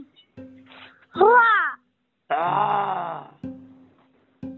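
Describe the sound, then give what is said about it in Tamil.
A child imitates a tiger's roar with two loud, drawn-out growling cries close to the microphone, the second longer than the first, with softer voice sounds in between. “உனக்கு என்ன மிருகம் ரொம்ப பிடிக்கும் புலி புலி பிடிக்குமா புலி எப்படி கத்தும்”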